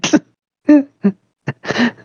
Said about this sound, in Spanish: Se me fue un pedacito y me empecé a ahogar. No, mm. dije, oh, me muero y me fui tosiendo. Sí, sí, sí. a mí me suele dar mucha tos, no sé por qué.